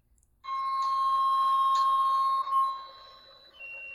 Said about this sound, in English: I feel like every time we talk about that movie, there's like a weird beeping. Is anybody else hearing that?